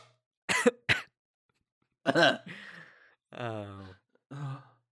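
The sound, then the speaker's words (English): Two quick, sharp coughs, then a harsher third cough after a pause, followed by strained, sighing vocal sounds as someone recovers. Fairly loud, with no words spoken. “Oh, I just started coughing.”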